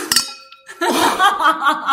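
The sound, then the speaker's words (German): Glasses clink together once in a toast in an apartment in Hamburg, ringing briefly before fading, then people burst into laughter and lively chatter right after. “die sich heute wieder mal besaufen. Richtig. Zum Wohl.”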